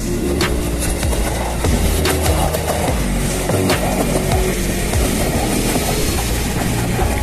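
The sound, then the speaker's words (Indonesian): An electric KRL commuter train from Rangkas rolls into Cicayur station in Cisauk, Tangerang, Indonesia, a steady loud rumble with rhythmic wheel clatter and metallic squeals over the rails, no voices. “akhirnya yang tunggu-tunggu hadir juga nih ini adalah KRL yang dari Rangkas”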